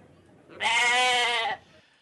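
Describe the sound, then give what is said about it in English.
A single loud goat bleat, sustained for about a second, with a nasal, wavering tone that stands alone against a quiet background. “what kind of religious ritual involves throwing a goat from 50 feet from the church?”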